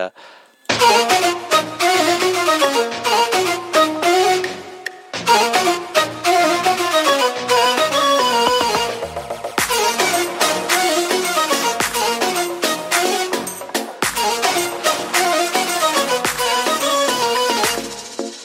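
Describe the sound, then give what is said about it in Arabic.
A loud, continuous song sung in Arabic, with a singer's melodic vocal over full instrumental backing and a steady beat, interrupted by a couple of brief breaks before the music resumes. “رح نكفي كمان مع غنية”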